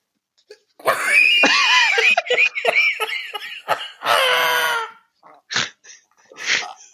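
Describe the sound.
A voice imitates a moped's loose, untensioned chain slapping against the chain guard as the throttle is opened and the drivetrain vibrates, a strained, buzzing vocal rattle with a wavering pitch running for a few seconds, followed by short breathy bursts.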